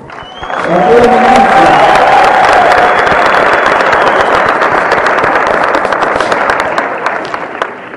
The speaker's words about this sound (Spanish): un fuerte aplauso para Sergio